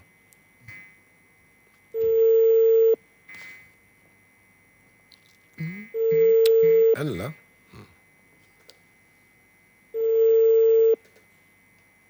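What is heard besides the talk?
telephone ringback tone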